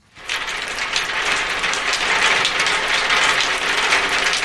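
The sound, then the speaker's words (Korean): Heavy rain pattering hard on a galvanized tin roof: a dense, steady rattle of countless tiny hard taps that starts abruptly and keeps an even, bright, fairly loud texture throughout, with no voices. “양철의 비 떨어지는 소리 한번 다시 들어볼까요?”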